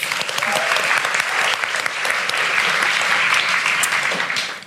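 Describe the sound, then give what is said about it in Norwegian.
Sustained audience applause for the launch of a new book, 'Snakkes til i uka', a dense crackle of many hands clapping at steady loudness for several seconds before tapering slightly at the end, with no speech over it. “Applaus for det også.”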